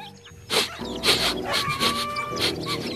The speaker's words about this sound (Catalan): Els gossos, els gats i la resta de bestioles estaven en un gran magatzem ple de palla.